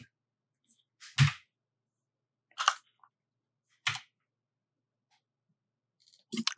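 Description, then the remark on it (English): Seven dice are rolled, clattering onto a table in four short, sharp bursts spaced a second or more apart, each a quick rattle with a soft thump, with quiet gaps between and no talking. “I, I, roll seven dice.”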